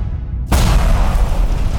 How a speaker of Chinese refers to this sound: 他们刚摔出厨房，就听到一声巨大的爆炸声从身后的厨房传出。